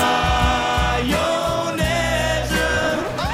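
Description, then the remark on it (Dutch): A brief stretch of an upbeat, full-band party cover version of a song plays loud and steady, with a driving bass line, bright melody and dense instrumentation. “Draaien we die feestversie of toch het origineel?”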